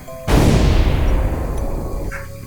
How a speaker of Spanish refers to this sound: Así que no hay otra más que darle un buen balazo. ¡Pum! Ahí está.